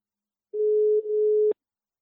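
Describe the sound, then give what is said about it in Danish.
A steady electronic phone ringing tone at a single mid pitch, as an outgoing call is placed, sounding for about one second in two short joined bursts with a slight click between, then cut off abruptly, with no talking. “jeg prøver lige at, at trykke på opkald her, så må vi se, om der er, er fisk at fange.”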